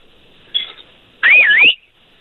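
A person whistles loudly: a brief faint start, then a strong, piercing half-second whistle that dips and rises in pitch, heard alone without any talking.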